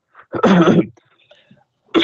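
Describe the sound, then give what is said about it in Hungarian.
A loud, harsh cough bursts right up against the microphone, followed by a brief quiet pause before a second cough begins at the very end. “csak kettő dolog, hogyha köhögsz, akkor létszes minden messzebb a mikrofont, mert nagyon ah, hangos.”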